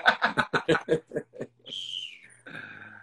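A voice imitates a Formula 4 race car engine: a quick series of sputtering, revving pulses, then a high, strained whine that drops in pitch like a gear change, followed by a lower buzzing tone.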